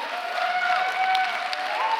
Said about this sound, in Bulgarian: О, ако ръкопляскаш, ръкопляскай, като че ти си част от пробуждане.